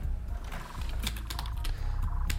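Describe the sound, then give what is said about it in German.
Someone types on a computer keyboard, a quick run of sharp clicks with an uneven rhythm over a low background hum, entering the search words "Kupferstich, Passau" (copper engraving, Passau) into a search engine. “Wenn wir jetzt zum Beispiel hier eingeben, Kupferstich, Passau, dann sehen Sie, dass wir als erster Stelle bei Google kommen”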